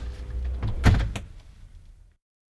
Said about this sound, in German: Die dicke, mehrlagige Tür wird geschlossen.